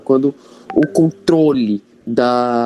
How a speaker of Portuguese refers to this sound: Eita, desculpa pelo barulho do WhatsApp aqui, deixa eu só desligar aqui.